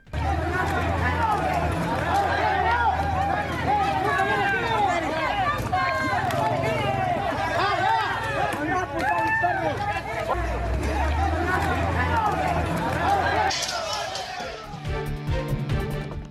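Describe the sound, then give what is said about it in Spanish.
A loud, agitated crowd of residents of the municipality of Buenavista, Michoacán, shouts and clamors with many overlapping voices while attacking National Guard officers with eggs, sustained throughout, before the noise turns harsher and more broken in the last couple of seconds. “oficiales de la Guardia Nacional fueron agredidos con huevos por habitantes del municipio de Buenavista.”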